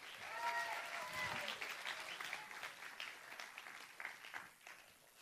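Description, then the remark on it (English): An audience breaks into steady applause, many hands clapping in a dense, continuous patter that gradually thins toward the end, with a few voices calling out over it at the start. “Give Him a hand.”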